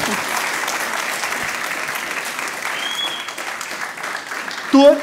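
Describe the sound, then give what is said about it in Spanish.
A crowd claps steadily and loudly as applause for the Lord, a dense continuous applause that holds for several seconds, with a brief voice cutting through near the end. “Have ese fuerte aplauso al Señor.”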